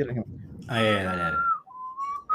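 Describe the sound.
Someone whistles a simple, sing-song children's tune from the children's show Barney, with clear sustained notes gliding between pitches, while a voice briefly sounds beneath the opening notes.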